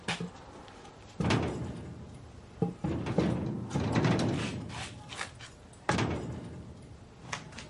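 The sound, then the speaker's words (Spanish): At night, a heavy wooden plank scrapes and clunks against a door as it is wedged into place to bar the door shut, several solid knocks and dragging slides in an uneven rhythm, with no voices. “Coge un tablón y atranca la puerta con él.”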